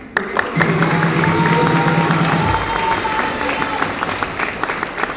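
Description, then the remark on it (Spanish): An audience at a presentation bursts into steady applause for the speaker's brother, lasting several seconds, dense clapping mixed with a few cheers and whoops, holding a fairly even loudness throughout. “también quiero que ustedes den un fuerte aplauso a él.”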